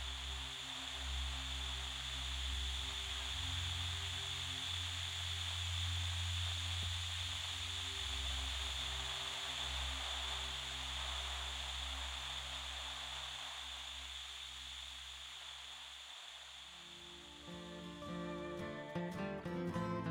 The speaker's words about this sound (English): Well, I guess I'll turn the TV on. Hope there's something good on one of these stations. I turned on the TV, and a chill ran up my spine. Static just static.